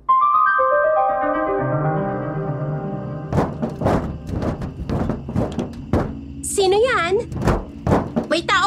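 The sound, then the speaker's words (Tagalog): Heavy footsteps thud on a roof at night, following someone, in an uneven series of loud, dull impacts, starting after a few seconds of low sustained droning tones and continuing over a murky background. “Ang nakakatakot, kapag isasara ko na yung bintana at patakbo akong papasok sa kwarto ko, may naririnig ako mabibigat na yabag ng paa na sumusunod.”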